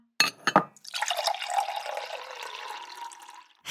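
A couple of quick glassy clinks, then a steady stream of water pouring into a glass for about three seconds, moderately loud, with no voices.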